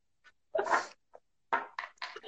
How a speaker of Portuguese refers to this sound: Fui espirrar, e derrubei tudo. Ah. ah, eu falei que a canela, o cacau sobe tudo e daí a gente começa a espirrar.